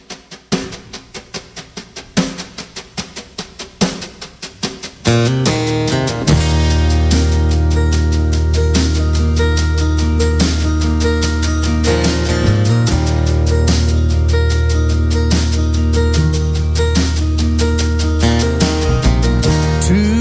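A country song intro opens with a few seconds of plucked, picked notes, then swells at about five seconds into a full, loud band with steady bass and sustained chords; no singing yet.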